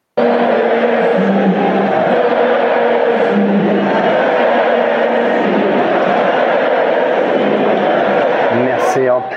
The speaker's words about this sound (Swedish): Barsas president Juan Laporta var på plats och då passade publiken på att fylla luften med ett välbekant mässande.